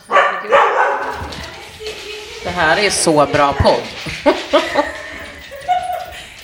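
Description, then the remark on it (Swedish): A dog barks in a few short, sharp bursts, mixed in with people talking over it. “Det ringer, hunden skäller.”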